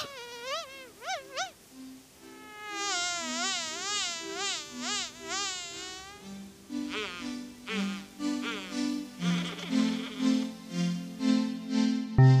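A fly buzzes, its drone wavering up and down in pitch, while a plucked bass-and-tone musical accompaniment joins in underneath and grows busier toward the end.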